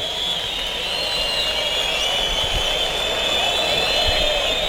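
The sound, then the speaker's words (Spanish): A large crowd in a bullring roars and whistles continuously, demanding an ear, a dense, steady wall of noise with shrill high tones, sustained and loud throughout. “Es que hay, más sonido que pañuelos, ¿no? Hay ruido más que pañuelos, ahora ha aumentado un poquito, pero no llega a la mayoría.”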